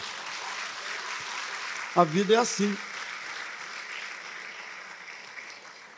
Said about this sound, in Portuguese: A vida é assim, pode aplaudir.